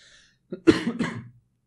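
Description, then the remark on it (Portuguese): A short burst of coughing from a person with a mold allergy: a small hacking onset followed by two harsher, louder coughs in quick succession, with no talking around them. “Gente, desculpe que eu tô tossindo bastante.”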